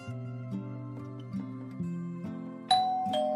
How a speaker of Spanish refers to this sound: En ese momento el timbre sonó, sin que siquiera lo imaginara. Ese sonido era la penetrante voz del destino, anunciándole que ese día sería especial pese a que, para él, solo era un irritante sonido.